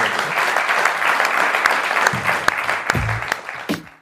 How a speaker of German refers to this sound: Dann Applaus mal für die drei Experten.